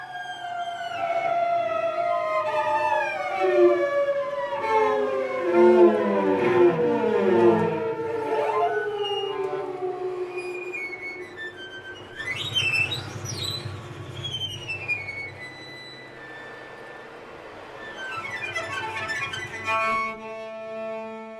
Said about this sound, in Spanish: Estamos escuchando Shimishimati Mikini, Conócete Mortal, del 2021, para violonchelo, acordeón y voz con procesos electrónicos